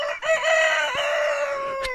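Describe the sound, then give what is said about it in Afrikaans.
A single loud crow-like call from a trumpet blown by a jester, bright and brassy, held for about two seconds with a slight downward bend, sounding like a rooster crowing. No talking. “In plaas van die gewone trompetklank klink dit soos 'n haan wat kraai.”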